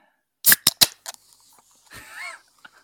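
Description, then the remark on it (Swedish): A few sharp metallic clicks and a crack as the tab of a Kong Strong energy drink can, Lidl's own brand, is pulled open, followed by a brief fizzing hiss. Fairly loud, with no talking. “Va, vad var det för burk du öppnade då? Det var en Kong Strong.”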